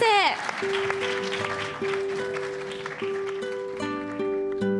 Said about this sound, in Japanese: 受賞者の皆様に大きな拍手をお送りください皆様本当におめでとうございます